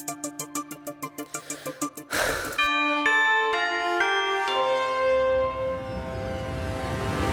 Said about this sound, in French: Allez générique.